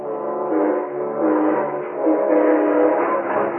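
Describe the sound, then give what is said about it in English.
An eastbound steam train's horn blares in a long, steady chord for several seconds at a coaling station at Elmore Springs, loud, its tone wavering slightly as it holds, with no voices. “I rode up to the coaling station at Elmore Springs and flagged down the eastbound train that same afternoon.”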